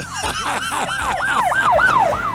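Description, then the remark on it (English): A police car siren wails in rapid rising-and-falling sweeps, loud, cycling steadily for the whole stretch with road rumble underneath. “Alan, that's a, that's a police car. I think we're supposed to slow down.”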